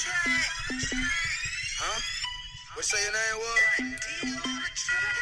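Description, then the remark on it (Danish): A bright, chime-like melody rings over a steady low beat, like the opening of a hip hop track that sounds somewhat like a Christmas song, with bell tones stepping up and down throughout, loud and up front. “Hov, er det en julesang? Ja, det er det lidt.”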